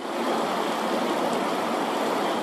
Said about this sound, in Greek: Δρόμοι έχουν μετατραπεί σε σαρωτικού χυμάρου που παρασύρουν ό,τι βρουν.